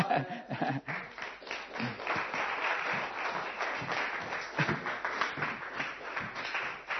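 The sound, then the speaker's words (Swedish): A church audience applauds Jesus at the end of a sermon, dense, sustained clapping that holds steady for several seconds, loud and continuous, with a few faint voices mixed into the crowd noise. “amen jag tror Jesus får världen en applåd till”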